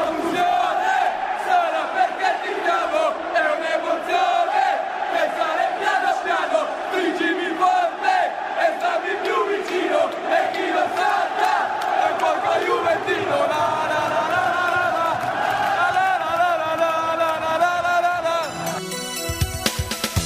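A huge crowd of football supporters sings a stadium chant in unison, loud and sustained with a steady melodic swell, echoing through a big open space before cutting off near the end.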